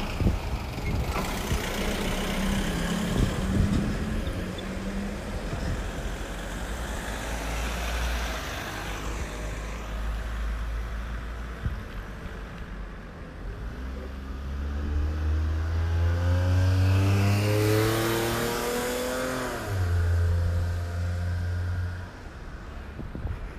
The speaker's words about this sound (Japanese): 今歩道を渡ろうとしたのに車が止まってくれはらへんかった怖かった